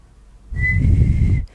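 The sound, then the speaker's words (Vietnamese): One steady whistled note, clear, held for about a second over a breathy rush of air, then cut off abruptly. “khi các bạn tập huýt sáo và các bạn à, hóp miệng lại và tập đẩy hơi đẩy hơi từ dưới bụng lên”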